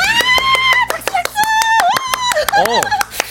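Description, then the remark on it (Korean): A single student in a middle-school classroom claps alone rapidly and steadily, seal-style, more than a dozen sharp claps, while a high, excited wordless voice squeals and whoops over the clapping. “아, 거기 혼자서 물개 박수 치는 학생?”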